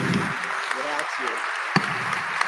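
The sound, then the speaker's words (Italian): A crowd applauds to welcome Domenico Sorrentino, bishop of the dioceses of Foligno and Assisi-Nocera-Gualdo Tadino, with dense, steady clapping that fills the whole stretch, a continuous crackle with a few sharper claps standing out, while voices murmur underneath. “Dobbiamo accoglierlo con un applauso perché”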